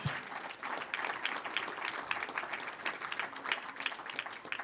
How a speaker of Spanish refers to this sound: Gracias a los hermanos que estuvieron temprano aquí barriendo, trapeando, arreglando porque están en construcción. Amén. Un aplauso a los hermanos que estuvieron acá.